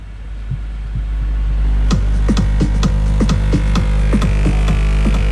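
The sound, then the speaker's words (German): A deep, very loud car subwoofer bass tone drones steadily during a timed loudness measurement run, swelling after about a second, while a rapid series of rattling thumps pulses over it; the run measures 133.3 dB. No one speaks. “Er möchte nochmal seinen Wert verbessern. Er hat eine 133 dB vorgelegt.”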